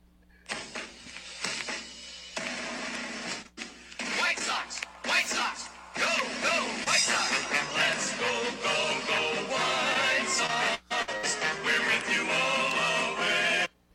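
A snippet of a baseball team's fight song plays loudly and continuously for about fourteen seconds, with sung melody over busy accompaniment and only a couple of very short breaks.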